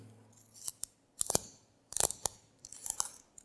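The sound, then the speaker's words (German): A pencil being sharpened in a sharpener, a series of short, crisp scraping crunches in irregular bursts, with brief pauses between turns and no voices. “Und der zweite Vergleich ist nun, dass der Stift eben gespitzt werden muss, äh, damit der überhaupt funktioniert.”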